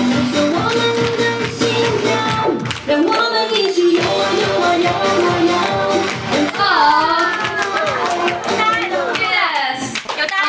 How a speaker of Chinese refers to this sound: 来，掌声感谢一下。